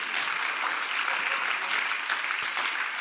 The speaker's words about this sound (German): Lass uns gemeinsam aufstehen, ihnen einen riesen Applaus geben und erwarten, dass Gott heute durch ihn spricht.